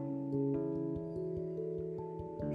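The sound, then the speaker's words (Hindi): A clock ticks in a steady, even rhythm, its soft clicks sitting under a sustained, humming tonal drone that fills the background throughout. “मेरे कानों में घड़ी की टिक टिक सुनाई दे रही है”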